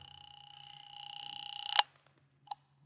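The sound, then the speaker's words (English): A telephone rings on the line as one long, buzzing trill that swells slightly before cutting off abruptly, followed by a brief click a moment later, as a call is made from a phone booth to a private home. No one speaks. “I went back to the phone booth and called Dr. Reichel's home.”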